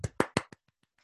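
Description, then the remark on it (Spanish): A brief, sparse burst of applause: four sharp claps in quick succession, then a few much fainter claps trailing off within about a second. No voices. “Es tan triste el aplauso.”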